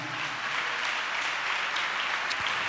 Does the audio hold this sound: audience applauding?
yes